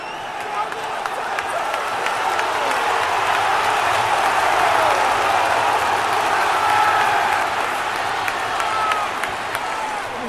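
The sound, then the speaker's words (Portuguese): A large stadium crowd of Manchester City fans chants olé around the 40th minute of the first half of a match against Manchester United, in a steady, swelling roar of many voices, with scattered sharp claps and whistles on top, holding loud for about ten seconds before easing slightly. “40 minutos do primeiro tempo e o City já colocou o United na roda, a torcida fazendo um olé à la inglesa.”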